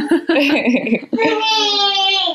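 A baby babbles in short, high-pitched bursts, then breaks into a long, steady fussing whine that holds a strained, wavering pitch. Clear and fairly loud, with no adult talking over it.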